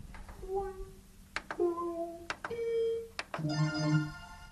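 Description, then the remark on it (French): Buttons on a dishwasher that was hacked into a keypad for a puzzle game are pressed with sharp clicks. Each click is followed by a short electronic beep at a different pitch, then a brighter multi-tone chime confirms the puzzle is solved. Moderately loud, with no talking. “on a un clavier qui sont en fait les boutons du lave-vaisselle, c'est-à-dire qu'on a piraté le lave-vaisselle pour le transformer en clavier.”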